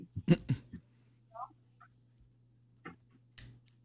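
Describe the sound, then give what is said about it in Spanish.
A small dog barks in short, sharp yelps: two quick ones at the start, then two more spaced out later, over a steady low hum with a couple of faint chirps between. “Es el chico el perro.”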